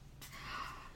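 A dog snoring softly in the background, one faint, breathy, snorting inhale that starts after a brief pause and drags on with a low rasp. No one speaks.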